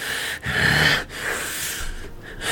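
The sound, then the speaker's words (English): A voice imitates heavy panting for the character Mondath, hit directly in the chest by an arrow and ripping it out: a run of loud, breathy, gasping breaths with short pauses between ragged inhales and exhales. “She's she is panting and she rips the arrow out.”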